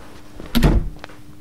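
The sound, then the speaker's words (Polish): A door is swung shut by a lieutenant with one solid thud and a brief latch click, followed by quiet with only faint small knocks afterward. “proszę zamknąć drzwi.”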